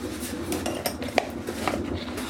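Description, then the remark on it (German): Metal clatter of a baking tray being fetched and handled for putting peppers in the oven, with a few scattered clanks and one sharper bang among softer rattling and scraping, no voices. “Genau, ich hole schon mal das Blech.”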